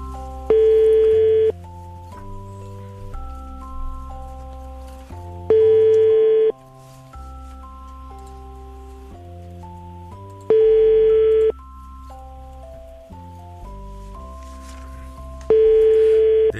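An outgoing phone call's ringing tone, a radio show calling a listener to wake them up, pulses four times, each buzzy one-second ring spaced about five seconds apart, over a steady melodic music bed with no talking.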